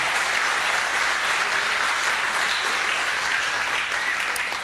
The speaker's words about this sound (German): Und wir haben hier ein, ein, ein super spontanes Team. Gebt ihm mal einen kräftigen Applaus. Richtig gut.